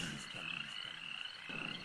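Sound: frog croaking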